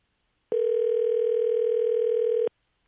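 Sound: phone call ringing tone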